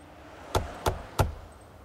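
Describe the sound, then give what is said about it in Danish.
Three firm knocks on the door of Carsten Reh's house on Vedbæk Strandvej in 2014, in a steady, evenly spaced rhythm, clear against a quiet background with no voices. “Men i 2014 bankede det på døren hos Carsten Reh i hans hus på Vedbæk Strandvej.”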